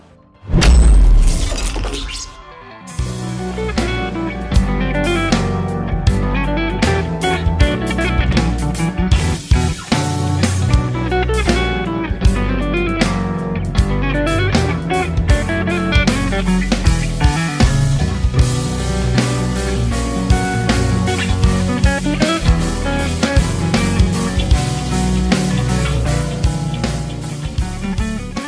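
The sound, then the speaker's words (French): Calm progressive metal plays at a steady, full volume, with lightly distorted guitars layered over a busy drum pattern after a brief, bright intro burst, with lighter song structures and a relaxing overall mood. There are no voices. “Là, on est sur des guitares moins saturées, des structures plus allégées et une ambiance globale reposante, même si les fans du genre s'y retrouvent quand même.”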